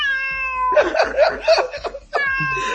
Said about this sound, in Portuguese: Uh! Opa, e olha que assustador, um gato. Miau. Miau. Miau, porra.